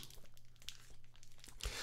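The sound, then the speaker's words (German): Continuous crinkling of a plastic Twinkie snack cake wrapper as someone eats a Twinkie, with irregular rustles and a sharper crackle near the end, no voices present. “Jetzt zieht sich das hier, weil ich so ein Twinkie esse, ey.”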